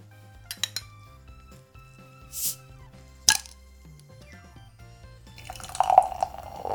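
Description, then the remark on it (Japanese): A few light clicks and a short fizzy hiss, then a sharp metallic crack as a dark wheat beer (Dunkelweizen) is opened, followed by a steady gurgling, foaming pour, with no talking. “じゃあね、開けて飲んでみたいと思います。”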